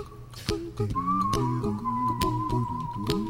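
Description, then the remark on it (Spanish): A clear whistled melody glides and holds over a layered a cappella backing of hummed bass notes and sharp, regular mouth-percussion clicks, steady in volume, in a 1988 song made without any musical instruments. “El silbante en este caso.”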